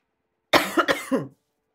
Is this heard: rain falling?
no